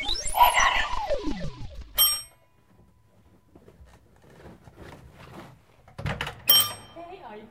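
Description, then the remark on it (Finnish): A neighbour's doorbell buzzer, pressed by accident, rings loud with a bright tone that slides downward, then a sharp ding. After a quiet stretch of faint murmuring, a second clanging ring comes near the end. “No, Mutta siis vahingossa painoin tässä tuota sun naapurin summeri mä sulamasin, koska mä kuulin joku semmoisen pienon summerin äänen.”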